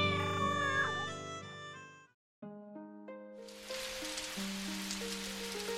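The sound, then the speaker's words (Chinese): Gentle melodic music plays, briefly pauses, then resumes as a steady hiss of autumn rain falling outside the window at night comes in partway through, with occasional crisp drips, and continues under the notes to the end. “窗外秋雨之夜，正慢慢进入沉寂的时刻，偶尔几声清脆的滴答雨声。”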